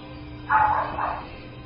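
A dog barks twice in the distance, two short muffled woofs in quick succession over a faint steady background hum, with no one talking.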